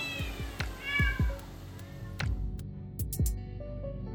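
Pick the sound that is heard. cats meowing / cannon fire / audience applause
cats meowing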